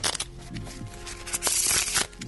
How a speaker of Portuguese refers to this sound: A produção então vai pegar o baralho que esqueceu de trazer. Pois bem, som de cartas sendo embaralhadas.